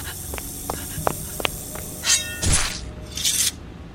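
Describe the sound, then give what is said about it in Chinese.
A snake that has slipped in hisses in three sharp, breathy bursts, the last one long and drawn out, after a few faint clicks and taps. No one speaks. “有蛇！有蛇溜进来了！”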